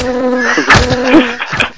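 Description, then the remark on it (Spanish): A loud buzzing fly drones steadily for under two seconds, its pitch swooping and wavering in a few short surges, used as the jingle of a news scoop ('primicia') segment with no talking. “atención de la sintonía de primicia de visto Espinosa es esta Adelante, Ahí está.”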